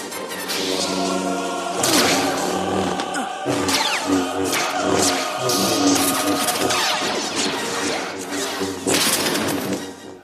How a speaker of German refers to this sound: Was ihr da brummen hört, das sind Laser. Oder besser gesagt, das, was man sich in Hollywood unter Lasern halt so vorstellt